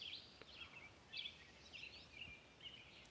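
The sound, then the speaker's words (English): Birds sing and chirp outdoors around a bird feeder in quick, high-pitched bursts, several calls overlapping over a soft background hiss, with no one talking. “Francis says, the birds singing, pretty awesome.”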